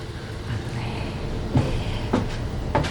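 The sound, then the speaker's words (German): Three sharp clicks and rattles, like the handle of an unlocked door to a swimming pool being tried and the door easing open, sound over a steady low background rumble with no voices. “Aber die Tür ist nicht verschlossen. Peter huschte hinein und schloss die Tür hinter sich.”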